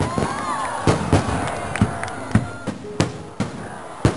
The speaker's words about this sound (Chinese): 这天夜里，鞭炮噼噼啪啪的响个不停。